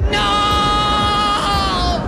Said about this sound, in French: Le cri de désespoir de Luke Skywalker